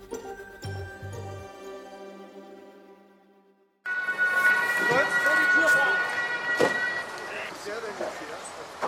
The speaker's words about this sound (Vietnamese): Âm thanh của cảnh sát tức tốc xông vào bên trong một tòa nhà ở thành phố Hamburg tại Đức, nơi đó một số người đã bị chết trong một vụ nổ súng. Sự việc diễn ra ngay tại thánh đường nhà thờ nhân chứng Jehovah tại quận Grosspostel.